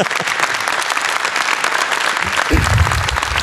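An audience applauds steadily throughout, a dense wash of many hands clapping at even loudness, with a low murmur of voices rising underneath near the end.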